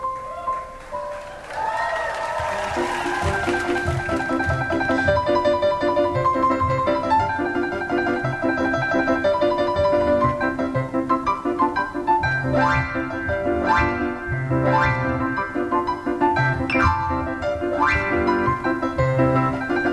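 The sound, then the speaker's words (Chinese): A piano plays the simple, cheerful tune 'Chopsticks' in an elaborate arrangement by a pianist, with steady repeated chords and a rhythmic bass line under bright melody notes, sustained at a moderate volume without any talking. “一个钢琴曲叫《筷子》啊，这是一个呵呵女作曲家呢，她写了一辈子的作品，就留下了这一首呃钢琴叫最简单的钢琴曲，用最了不得的钢琴家弹最简单的钢琴曲叫《筷子》，听听她的处理。”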